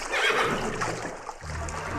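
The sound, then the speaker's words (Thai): The king's royal horse Assawarat, no longer unruly and about to be led to the upstream bathing landing, whinnies loudly, a shrill, wavering neigh that rises and trails off, followed by lower snorting breaths; no one is talking. “นอกจากเลิกพยศแล้ว ม้าคู่บารมีพระเจ้าแผ่นดิน ยังลุกขึ้นให้จูงไปยังท่าต้นน้ำแต่โดยดี”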